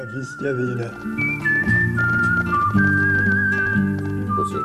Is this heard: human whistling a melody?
yes